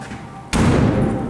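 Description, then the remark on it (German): A single heavy thud of the door to a Wunderkammer (cabinet of curiosities) exhibit being shut, sudden and fairly loud, followed by a dense, steady rumble of background noise that lingers after the impact. “Soll die Tür zumachen und hier reingehen.”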